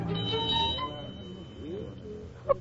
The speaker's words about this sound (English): Let it be so. Pull the bell cord